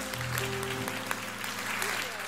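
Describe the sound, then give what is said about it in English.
An audience claps together in sustained, dense applause as a hand clap of praise to the Lord, with a steady low musical tone held underneath throughout. “Now give the Lord a great hand clap of praise.”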